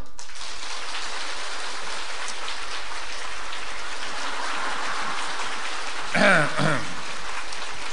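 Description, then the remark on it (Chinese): Sustained audience applause, a dense, steady wash of many hands clapping for the whole stretch, with a voice briefly speaking over it near the end. “从你们掌声的鼓励当中，我以后还会再写，很开心啊啊，很开心。”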